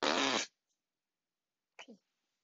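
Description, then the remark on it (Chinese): A loud, buzzy fart sound, apparently made with the mouth, standing for a huge fart let out by the character Butt Detective (屁屁侦探) in a told story, blasts for about half a second, followed by silence and then a short two-part vocal utterance. “屁屁侦探把盖着他的手跟鼻子的布往上面一打，放出了一个好大的屁，”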